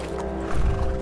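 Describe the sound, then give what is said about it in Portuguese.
A large horse ridden by the orc Gnar into an arena, its hooves clopping steadily as it neighs, with the sound growing heavier and louder in the second half. No one speaks. “E ele aparece em cima de um grande cavalo, juntamente com uma fileira de vários orcs entrando pela outra entrada da arena.”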